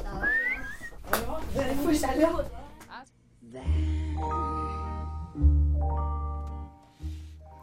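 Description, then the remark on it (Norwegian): Outdoors at Gløshaugen, several sixth-grade children whistle in short, scattered bursts amid chatter and clapping, followed by longer steady whistled tones that swell and stop in a few separate phrases. “Så må dere merke nå hvis dere prøver å klappe her ute og plystre litt og sånn.”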